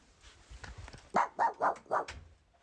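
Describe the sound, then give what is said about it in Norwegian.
A dog, Kasper, barks four times in quick, evenly spaced succession, sharp, after a brief stretch of quiet rustling background noise, at a family home in Kristiansand. “Jeg er hjemme i Kristiansand hos mamma og pappa og Kasper, som er hunden vår.”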